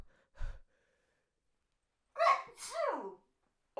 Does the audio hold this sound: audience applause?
no